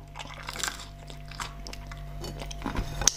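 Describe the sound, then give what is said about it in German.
Crunchy chewing and biting sounds of a person eating pizza at home repeat irregularly, with soft mouth noises between bites over a low steady hum; no one speaks. “Und so essen wir wenigstens gemeinsam.”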